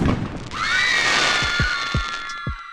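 Fireworks go off: a shrill rising whistle of a launch holds steady while a string of dull booming bursts follows at uneven intervals, loud, with no voices.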